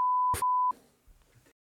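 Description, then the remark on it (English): A steady, high-pitched censor beep holds for under a second, bleeping out a spoken quiz answer, with a brief burst of speech poking through midway, followed by quiet, indistinct voices. “uh, we'll get that beeped out for anyone playing along at home.”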